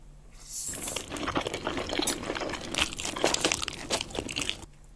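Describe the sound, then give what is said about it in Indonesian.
Someone eating Indomie goreng fried instant noodles: a dense, steady stream of crackly, crunchy and slightly wet chewing and rustling sounds lasting about four seconds, with no talking. “gue sambil makan mie goreng.”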